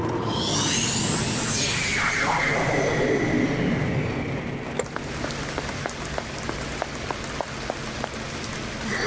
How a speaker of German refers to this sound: Sieht nach einem schlimmen Gewitter aus.